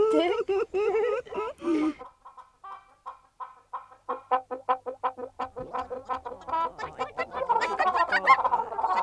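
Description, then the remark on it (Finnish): A voice speaks briefly at the start, then hens of many colours cluck in a henhouse, short repeated clucks that become busier and louder, overlapping into a dense chorus near the end. “Ja nyt mennään kanalaan katsomaan minun pikkutipujani.”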